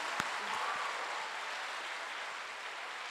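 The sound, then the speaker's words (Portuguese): An audience claps steadily for a few seconds, a dense, even wash of hand claps that holds at a constant level throughout. “A mulher então, se assim, é para aplaudir, aplaude direito.”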